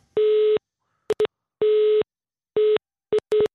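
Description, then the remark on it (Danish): A telephone busy signal on a call attempt sounds alone, steady beeps of a single low tone repeating with brief gaps, broken up by a few short clipped bursts, clear as if through the handset. “Jeg, jeg tror lige, vi prøver at, at ringe op igen.”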